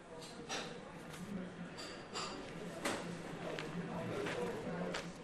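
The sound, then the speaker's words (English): Busy coffee shop ambience in Firhouse Shopping Centre the day after a tragedy, with journalists working on laptops: a steady murmur of indistinct voices with sharp clinks and clatters of cups and dishes cutting through every second or so. “This is the sound of the coffee shop in Firhouse Shopping Centre the day after the tragedy.”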